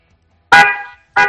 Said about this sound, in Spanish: dale, dale un toque, dale tres toques cortos. Vamos a ver cómo suena ese claxon, venga.